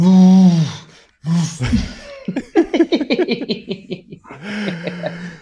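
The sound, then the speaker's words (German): A voice imitates a lion's roar with a loud, sustained throaty tone, then a short pause, a rushed burst of breathy laughter and another drawn-out vocal sound at the end. “Also so ein Löwengebrüll würde ich viel für geben, aber können wir auch verschieben.”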